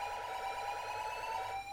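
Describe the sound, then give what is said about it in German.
A car anti-theft alarm blares continuously just after the car went through a car wash, a loud steady electronic tone with a rapid warbling pulse, sounding alone without any voices. “Ja, das klingt, das klingt für mich nach einer Diebstahlsicherung.”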